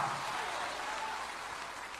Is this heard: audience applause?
yes